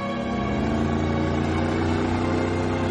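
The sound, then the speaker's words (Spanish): A motorboat engine runs at a steady, droning pitch for the whole moment, loud, with a constant low hum and no voices. “¡Hola, tiene una lancha con motor!”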